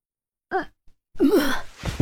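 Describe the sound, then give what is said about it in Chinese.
A voice imitates retching: a short strained gag, then a longer, louder heave with a wavering, raspy groan, followed by a breathy exhale. No words are spoken. “呕的一声，钟离差点吐出来，跪在地上，双手扶地，剧烈喘息。”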